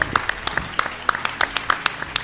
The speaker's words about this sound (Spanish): Y hoy, por supuesto que quisiera agradecer y un fuerte aplauso para el ayuntamiento o el ayuntamiento de esa pobla que ha portado muy bien en nosotros.